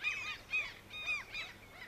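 bird, common gull calling

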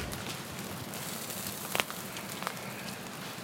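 nature, crackling campfire

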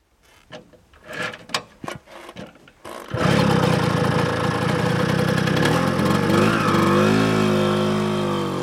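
vehicle, moped engine revving

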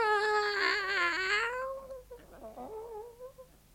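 animal, cat meowing in reply

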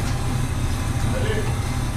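vehicle, boat engine idling

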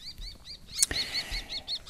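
bird, common kestrel calling

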